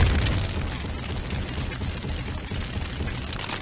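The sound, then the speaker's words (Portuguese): A MOAB bomb explosion sound effect: a loud, continuous roaring rumble with heavy low-end booming that holds steady for several seconds, with no voices. “solta Moab, fogo do motor, Moab.”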